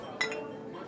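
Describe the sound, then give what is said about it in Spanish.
Glasses clink together in a quick toast, a bright ringing chime with a second lighter tap right after, fairly clear over a faint room murmur. “Eh, salud por él.”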